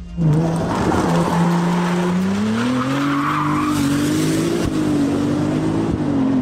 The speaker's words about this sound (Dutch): Het geluid van de Ferrari 296 GTS. Plug-in hybride, supercar.